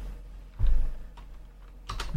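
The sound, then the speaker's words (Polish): A few computer keyboard key presses, including the F12 key: sharp clicking taps at uneven intervals, the first a louder, heavier thump and the last two coming in quick succession, with no talking. “No na przykład naciśniemy sobie F12.”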